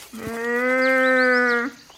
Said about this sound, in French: C'est peut-être un cerf.